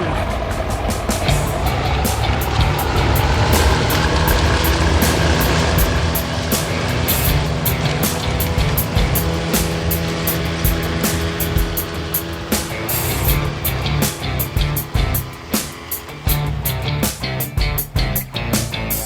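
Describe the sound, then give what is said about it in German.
A motorboat, its mooring lines just cast off, has its engine catch and roar up to speed, the loud, steady drone rising in pitch as it pulls away at night toward an island off the mainland, with some rattling and knocking toward the end. No one speaks. “Ja, Leinen sind los. Dann Motor an und Gas geben.”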